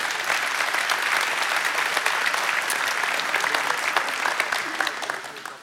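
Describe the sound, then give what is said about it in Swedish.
An audience claps steadily for several seconds for pastor Egil Svartdal after the morning Bible study, a dense, even patter of many hands that holds its level throughout and then begins to thin out at the very end. “Ska vi ge honom en applåd?”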